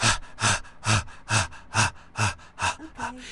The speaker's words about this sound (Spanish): Entonces la respiración de jadeo.